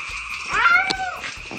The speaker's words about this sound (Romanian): Un tată care chinuie o pisică pentru a-și distra fiul Doamne, Doamne cât de greșit e totul aici